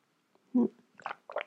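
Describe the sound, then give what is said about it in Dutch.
A quiet sip of hot tea: a short low slurp followed by two softer wet gulping sounds, with no talking. “Neem even een slokje thee.”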